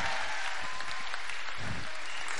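Steady audience applause given to Jesus, a dense wash of many hands clapping at once, fairly loud and continuous throughout with no voices standing out.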